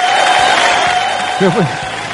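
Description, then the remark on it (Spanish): An audience wearing face masks claps steadily in a dense, continuous wash of applause, with cheering voices mixed in and one brief rising shout partway through. “Perdón, aplauso con recaudos, por favor, ¿eh?”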